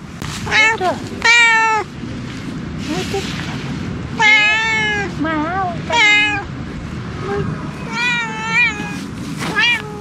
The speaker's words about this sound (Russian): Вы, конечно, знаете, что это за животное. Прекрасно слышно, как оно мяукает. Но по этому мяуканью – нельзя определить, какого пола это животное.